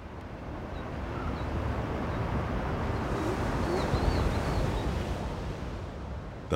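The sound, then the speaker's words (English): A steady, broad roar of Pacific Ocean surf washing onto a secluded beach at Big Sur on the central California coast, continuous and fairly loud without distinct breaks between waves, with faint high chirps drifting over it; sea lions bark. “mesmerizing sounds of the Pacific at Big Sur.”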